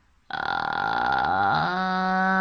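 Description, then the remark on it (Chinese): A voice teacher demonstrates vocal fry: a low, creaky crackle that starts abruptly and is then pushed out, smoothly rising into a steady, clear, relaxed natural tone that holds to the end. “我可以看到，我们可以看到这个发完气泡音，然后用你的声音推出去”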